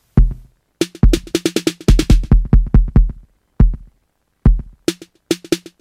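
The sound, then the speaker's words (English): A deep 808-style kick thumps in a steady electronic beat, joined by crisp, bright snare hits from the Snare instrument in Ableton Live. The pattern stops and starts with short pauses, loud, with no voices. “Okay, next I've added the snare.”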